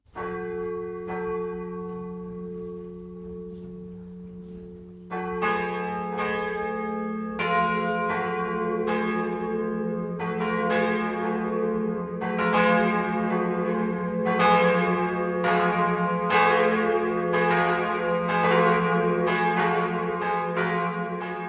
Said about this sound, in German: Es ist 12 Uhr. Das Mittagsläuten kommt heute aus Döringstadt in Oberfranken.